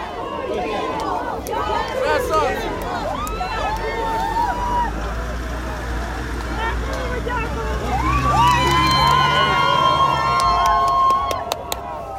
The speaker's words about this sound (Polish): Atmosfera była tam po prostu niesamowita. Wyślę potem wam dźwięki, ale ludzie po prostu szaleli e, z radości. Płakali, machali flagami, odpalali racę nawet w jednym przypadku.